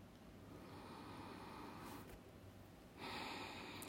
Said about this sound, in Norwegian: lytte til pusten din. Mm, og du kan gjerne sette litt lyd på pusten, sånn at du lar hele deg bli absorbert av pusten. Akkurat som du smelter inn i pusten din.